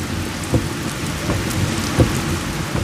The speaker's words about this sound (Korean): 아유, 이거 비가 이렇게 오는데 그냥 컨테이너까지 갑시다.